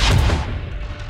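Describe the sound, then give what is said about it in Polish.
A loud, sharp crack bursts out outside in the middle of a forest, trailing into a rough, rumbling clatter like hooves that fades over about a second. No one speaks. “usłyszał głośny trzask i coś jakby stukot kopyt.”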